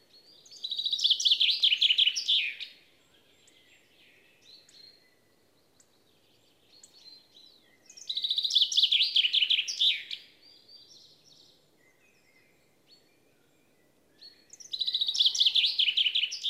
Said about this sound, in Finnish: tänään käynnistyy huhtikuinen, varsin keväinen luontoilta ja Peippo kuuluu jo monin paikoin